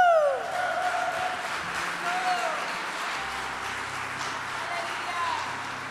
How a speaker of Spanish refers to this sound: Si está aplaudiendo a mí, es demasiado, pero yo creo que el Señor se merece un aplauso de honra.